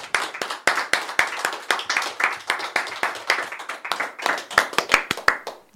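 An audience applauds loudly for a band after its song, a dense, steady wash of many hands clapping for several seconds, with sharp individual claps popping out above the crowd's rapid patter.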